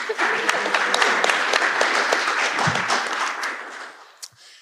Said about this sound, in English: round of applause for Paul